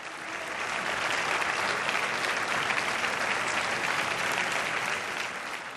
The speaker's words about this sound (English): And as he left the building for the last time, Mr. Hollande was greeted with warm applause.